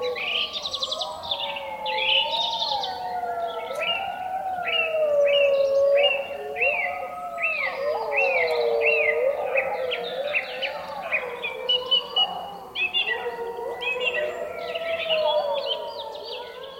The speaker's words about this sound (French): même les oiseaux, le son me paraissait beaucoup plus clair, beaucoup plus fin, beaucoup plus cisaillé, beaucoup plus tenu